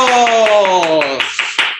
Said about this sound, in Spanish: Y en este caso, como estamos en el programa 200. ¡Aplausos!